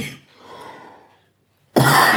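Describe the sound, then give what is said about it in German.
Harsh coughing: a short cough, a softer rasping follow-through, a brief silence, then a loud, sudden burst of coughing that runs to the end. No one speaks. “mit dem Husten wäre besser gegangen, wenn du einen Schluck genommen hättest vorhin,”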